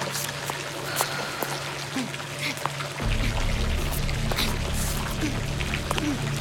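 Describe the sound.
Steady splashing water from a fountain pours continuously, with a deeper rushing rumble that swells about halfway through; faint voices may murmur in the background.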